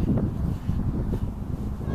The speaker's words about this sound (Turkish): Yine dışarıda yürüyüş. Yine rüzgar var. Dünkü kadar değil, evvelsi kadar hiç değil. Bayağı bir fırtına vardı çünkü. Ama yine de rüzgarlı. Küçük parktayım.